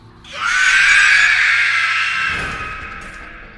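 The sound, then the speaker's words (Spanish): A single loud, piercing creature shriek coming from above, high-pitched and sustained for about three seconds before gradually fading, heard on its own with no talking. “No se trataba del amenazante aullido de las bestias, sino de un chillido agudo, prolongado, suficiente para helarle la sangre en las venas.”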